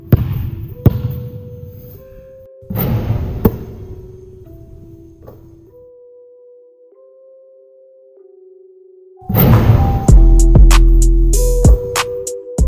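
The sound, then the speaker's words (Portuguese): A short musical intro jingle: punchy percussive hits open it, a simple synth melody steps through sustained notes, then a loud final burst of drums and layered tones. No voices. “Então, Roda a vinheta aí que vai começar mais um episódio do podcast”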